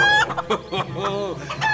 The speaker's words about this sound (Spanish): Nos dio bastante trabajo atarle las patas. ¡Oh, noble gallo!